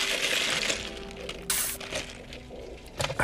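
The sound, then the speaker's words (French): Someone takes a sip of coffee: a mug clinks and knocks faintly, with a short breathy sip in the middle and another clink at the end, no talking. “Euh, attends, je vais prendre une gorgée de café.”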